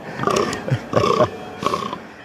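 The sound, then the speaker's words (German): A red deer stag bellows during the rut: three loud, hoarse roars in quick succession, each a rough, drawn-out groan lasting about half a second, with no talking. “Bist du jetzt noch bei den Hirschen, oder was?”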